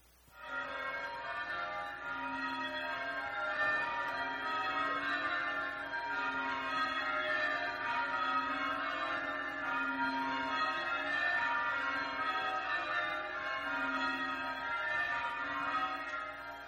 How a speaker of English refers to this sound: Listen, just listen to this 10, 15 second recording of Christmas bells from one of the churches in the English villages.